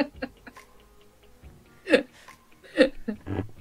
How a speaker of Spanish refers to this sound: los ruidos son del palito, del stand del micrófono. del palito. Sí. Del palito.